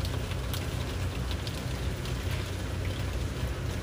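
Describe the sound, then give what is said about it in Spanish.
Steady rain falls continuously, a dense hiss with scattered brighter patters of drops over a low rumble, even and unbroken throughout with no voices. “Si te estás enfocando en el sonido de la lluvia, te invito a que lo hagas de una manera no juiciosa,”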